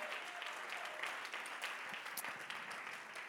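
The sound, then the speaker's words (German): An audience at a church service claps steadily for a few seconds, a dense, even patter of applause with no voices rising above it, applauding the founding of a new church in Ansbach. “Komm mal, lass uns mal das ist ein Applaus wert, oder?”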